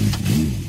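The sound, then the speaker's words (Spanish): A brief engine rev from a 30-horsepower motorcycle on a highway, with a low, rumbling drone that rises and falls in pitch, loud and steady for under a second with no voices. “Cuando una moto de 30 caballos va por la autopista suena así.”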